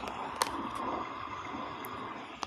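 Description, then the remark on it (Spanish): Steady, hissing rainfall during a storm makes a dense wash of noise, broken by a few sharp drips or taps. No one speaks. “El día de hoy está lloviendo.”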